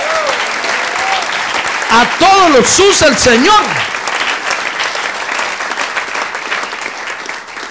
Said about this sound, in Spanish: Démosle un aplauso al Señor, gloria a Dios.